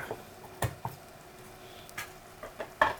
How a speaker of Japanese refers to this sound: これもあの弱火で火が通るまで待ってるとすごく時間がかかるので、うん、にんにくがこうジュージュージュージュー上がっていくような音がするまではもう強火で大丈夫です